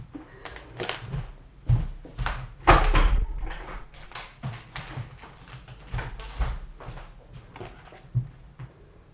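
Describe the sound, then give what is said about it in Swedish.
A door is handled and opened, with a run of clicks, rattles and soft knocks and one sharper thump, as a female dog trying to get into the speaker's room is let in; no one speaks. “ja, alltså jag, jag får bara passa sig och släppa in henne för hon försöker komma in i mitt rum.”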